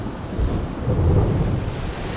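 A deep, continuous rumble of thunder rolls through a storm, swelling in the middle and holding steady, with a faint hiss of rain or wind underneath and no voices.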